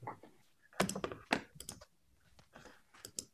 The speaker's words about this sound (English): Dude, do a juggle. Do yeah. a juggle. Do a juggle. All right, I'll do a juggle for you.